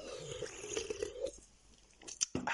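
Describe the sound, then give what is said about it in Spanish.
A quiet sip of a drink, with soft wet slurping and a few sharp mouth clicks near the end. No one speaks. “El precio, sorbito dramático”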